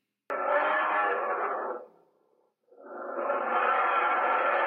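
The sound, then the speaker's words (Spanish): A spectacled (Andean) bear vocalizes in two long, loud, rasping calls separated by a brief pause, each lasting over a second, with a slightly echoing quality. “los osos de anteojos es un animal que está ahorita en zona de amenaza y vulnerabilidad”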